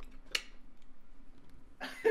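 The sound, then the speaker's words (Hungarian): A voice imitates a neck cracking: a sharp, brief click, a quiet pause, then a longer raspy crunching burst, fairly loud. “És csak a recsenés ad, hogy...”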